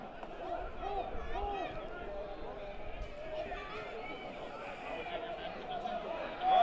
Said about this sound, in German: Und jetzt hören wir wirklich laute Gesänge von der Tribüne.